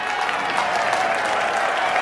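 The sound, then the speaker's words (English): Loud, steady applause from a sizable audience as a woman walks onto a stage, a dense wash of clapping with a few faint cheers mixed in, continuous throughout with no talking. “The crowd roared as a petite woman in a fitted pink suit walked onto the stage.”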